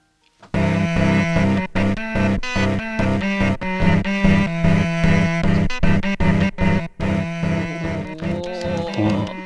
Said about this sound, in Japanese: ボタン押すとテープが流れて、はい、でそれでいろんな音をあらかじめ録音された音がそうだ、ね、その音をじゃあせ先にじゃあ一回聞いてみてもいいでしょうかね。じゃあ、はい、まずその中に入ってるチェロの音を聞いてみますか。